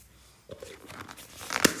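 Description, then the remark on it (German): Someone handles the plastic lid of a bubble tea cup: soft crinkling and rustling that builds, then a single sharp, loud crack near the end, with no talking. “Es geht gerade um den Deckel von den Bubble Tea Dings da.”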